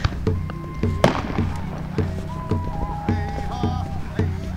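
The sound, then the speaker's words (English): Fireworks thump and pop in a steady series of muffled bursts, with faint high tones and background voices singing and cheering, at the pipeline protest camp at Standing Rock, North Dakota, on a cold night. “Like there's a lot of sage being burned around here and you can hear fireworks and singing and cheering.”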